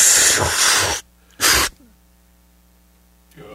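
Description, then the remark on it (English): Gas hisses loudly out of a balloon as someone inhales it: one long breathy rush, a short pause, then a second brief burst before it goes quiet. “Uh, so we got these balloons, right? Yeah. Okay. Ready? you gotta suck on it, man.”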